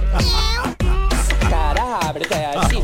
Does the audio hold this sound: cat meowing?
yes